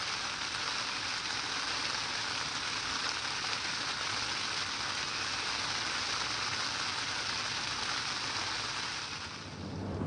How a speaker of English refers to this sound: and this is Rain on Tent.